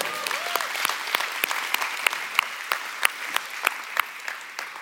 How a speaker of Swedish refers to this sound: En applåd.